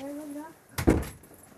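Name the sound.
knocking on a door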